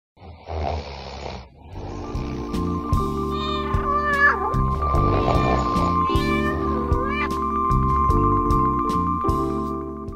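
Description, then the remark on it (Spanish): A cat meows several times in drawn-out, rising and falling cries, clear, over a steady low droning musical background with no talking. “Solo uno de los viejos, satisfecho con la vida, salió a buscar al gato hasta encontrarlo.”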